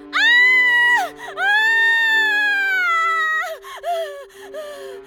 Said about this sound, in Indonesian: Si anak perempuan menjerit-jerit. Perawat berdatangan ke dalam kamar itu.